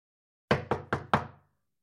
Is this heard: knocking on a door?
yes